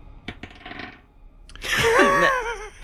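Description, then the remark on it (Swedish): Dice clatter and tumble across a table for about a second in a short burst of rattling clicks, rolling a 20, followed by a loud, drawn-out vocal exclamation. “Vad slår du?”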